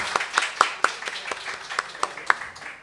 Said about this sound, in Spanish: Bueno, seguimos en este imaginario y le vamos a pedir un fuerte aplauso para el señor Diego Bello, que es nuestro invitado.